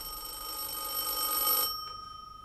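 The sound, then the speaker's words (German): A telephone rings with a bright, high, buzzing electric bell tone that holds steady for over a second and a half, then cuts off, leaving a faint hum. No one speaks. “Äh, trotzdem hatte ich Angst, den verfluchten Hörer abzunehmen.”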